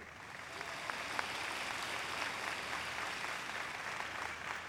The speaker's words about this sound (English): Amen. Give a loud applause to the Lord.